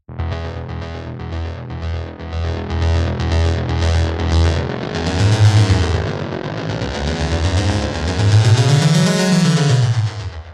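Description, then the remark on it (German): A synthesizer app preset plays alone on an iPhone 12, played with a finger on the touch keyboard: rhythmic buzzy pulses at first, then a thick, distorted tone swells and glides up and down in pitch, loud and sustained, without any talking. “du kannst mit dem Finger auf dieser virtuellen Tastatur spielen”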